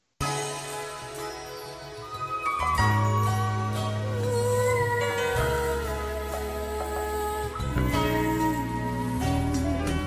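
A song's instrumental intro plays loud and steady, with sustained melodic tones over a deep bass line that shifts every few seconds, and no voices.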